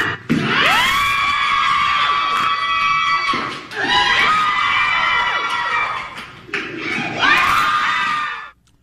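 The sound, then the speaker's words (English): A loud crowd cheers and screams in three sustained surges, each swelling with high-pitched shrieks and whoops, dipping briefly between bursts before fading out at the end, as a Las Vegas woman crushes three watermelons with her thighs in seven and a half seconds for a world record. “What is that cheering?”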